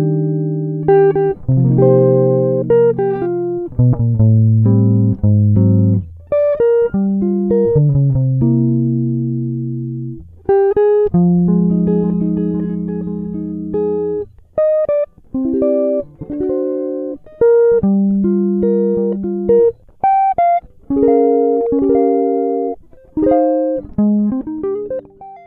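Solo jazz guitar played without any other instruments, moving between chordal passages and single-note melodic runs with a clean, warm tone at a steady, moderately loud level.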